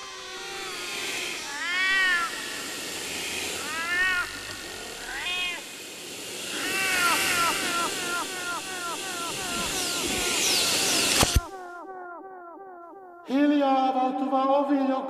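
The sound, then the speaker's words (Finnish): Cats meow over and over, many overlapping plaintive cries forming a loud, continuous chorus that drops out briefly near the end before the yowling starts again. “takana vielä joskus oli kissa.”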